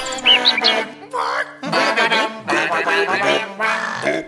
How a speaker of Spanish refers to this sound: Mejor es que el ruiseñor trine sin que nadie intente hacer lo suyo.